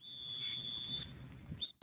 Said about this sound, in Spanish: Ahí está, ahí sonó el silbato.